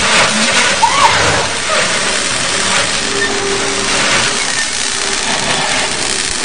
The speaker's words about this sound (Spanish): Se arrastra un poco, pero se detiene al descubrir una sierra que comienza a cortar el conducto cortándole el paso.